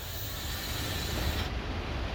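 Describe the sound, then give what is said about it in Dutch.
A steady mechanical rumble and rolling hum from a car of the Wuppertal suspension railway in Germany passing along its track at Oberbarmen station on a sunny day, continuous and moderately loud, with no voices. “Kijk, daar gaat het eh, mechaniek.”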